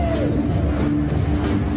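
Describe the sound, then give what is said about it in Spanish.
A large stadium crowd roars steadily, with scattered bursts of clapping rising out of the dense, continuous wash of noise, as Maradona and Antonio Careca are seen in the stadium. No one speaks clearly over it. “Las palmas, de delirio.”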